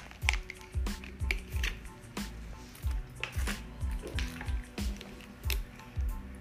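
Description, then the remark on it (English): Steady gulps of someone drinking water, about ten swallows in a regular rhythm with soft wet clicks between them. No talking. “Excuse me, gotta get some water.”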